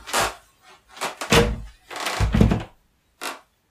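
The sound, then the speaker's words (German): An old door in an old building is opened with a series of dull thunks and rattling knocks, some short and some drawn out, ending in one brief clack after a pause. “Dann mache jetzt eine Tür.”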